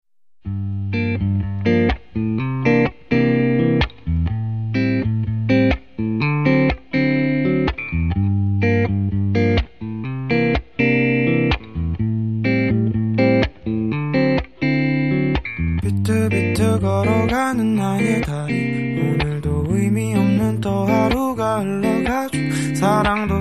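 A full-band rock song plays loud and steady, with driving distorted guitar chords and regular drum hits, the mix growing denser and brighter toward the end; no voices are heard.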